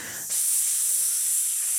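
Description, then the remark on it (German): A voice imitates a spray can painting a blue graffiti S during a breathing exercise, with a steady, bright hiss that starts abruptly and holds evenly for over a second, with no other talking. “Und dann mache ich S and Graffiti.”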